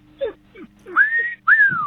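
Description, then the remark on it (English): A loud wolf whistle: a short rising note followed by a longer one that swoops up and glides back down, with a few faint squeaky sounds just before it. “Were we wolf whistled?”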